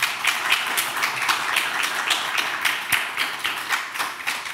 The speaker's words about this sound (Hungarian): Köszönöm szépen a képviselőjelölt uraknak, hogy eljöttek és vállalták a megméretetést. Szeretnék én egy nagy tapsot mindkettő képviselőjelöltnek.